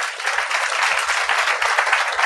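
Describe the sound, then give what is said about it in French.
An audience applauds steadily as a guest from CRC Québec is introduced, a dense, continuous wash of many hands clapping at a moderately loud, even level with no voices over it. “Applaudissez-le.”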